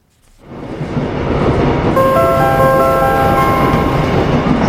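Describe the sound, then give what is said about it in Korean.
Subway station ambience at Yeouido Station at 8:30 in the morning during the commuter rush on a snowy day: a steady, loud rumbling roar swells in after a brief silence, and about two seconds in, several thin, high ringing tones layer over it and hold. “근데 출근길에 눈이 엄청 와가지고 눈을 막 헤쳐가지고 지하철역까지 겨우 들어왔는데 막 옷이 젖어 있고 막 기분도 아.”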